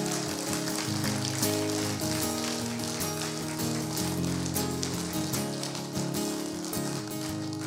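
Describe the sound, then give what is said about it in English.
An audience applauds a speaker at a Friday night gathering in Chilliwack, a steady, dense, even patter of many hands for several seconds, with sustained musical tones held underneath and no talking. “Come on, give him a big old clap.”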